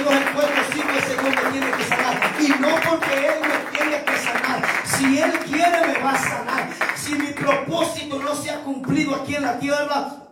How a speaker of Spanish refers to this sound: Denle un aplauso fuerte, por favor.